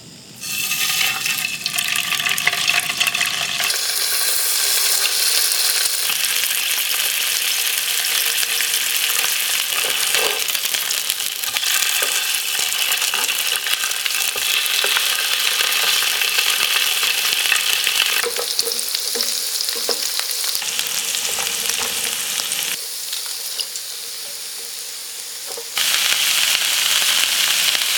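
Salmon chanchan-yaki, cooked this morning, sizzles and crackles loudly on the pan, a dense, steady hiss with popping and bubbling that briefly eases near the end before surging again. No one speaks.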